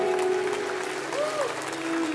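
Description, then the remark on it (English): A church audience claps its hands to give God praise in a sustained, dense wash of applause, steady and fairly loud throughout, with a faint sustained organ-like tone gliding underneath. “If I got a church that believes it, clap your hands and give God praise right now.”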